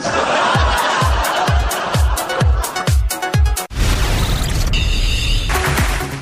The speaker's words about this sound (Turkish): Stüdyo içerisindeyiz diye alkışla mı girdin? Ve stüdyo içerisindeyiz de alkışlıyoruz.